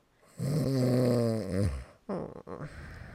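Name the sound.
snoring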